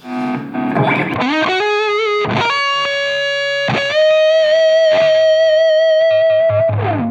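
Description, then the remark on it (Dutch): Loud, fuzz-distorted electric guitar, played at home on the player's own gear, plays a few long sustained notes, sliding and bending up between them, with a thick buzzing tone and no voices. “En het eerste dan een beetje met wat heavier samen met een fuzz of zo.”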